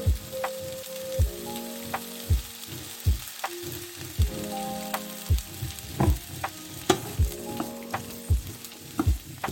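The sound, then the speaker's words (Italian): Celery sizzles and crackles in hot seed oil with a steady hiss, while a utensil scrapes and stirs it in regular strokes, with no talking. “e andiamo a mescolare bene e lo friggiamo per un qualche minuto”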